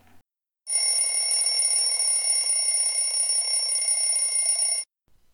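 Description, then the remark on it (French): An alarm clock rings at 6:45, loudly and continuously for about four seconds, a bright, steady electronic tone with strong high harmonics, then cuts off abruptly. No one speaks. “Il est 6h45. Le réveil sonne.”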